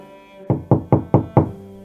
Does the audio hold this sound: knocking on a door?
yes